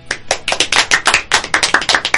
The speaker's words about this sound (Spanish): Esto es Cazuela Cósmica. El aplauso.